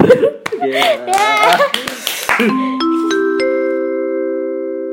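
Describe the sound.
A burst of hand clapping, quick and uneven, mixed with laughter and excited voices, fades after a couple of seconds into steady, sustained musical tones.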